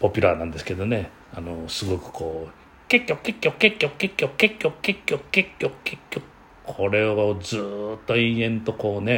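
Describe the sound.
A man's voice imitates a Japanese bush warbler's call, rapidly repeating a short chirping syllable more than a dozen times in a steady, quick rhythm, with ordinary speech before and after.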